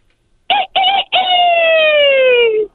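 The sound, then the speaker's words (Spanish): A man calling in to an afternoon show imitates a rooster crowing: two short clipped bursts, then one long, loud, strained note that slowly falls in pitch. No one talks during it. “A ver, dale como gallo, a ver si es cierto.”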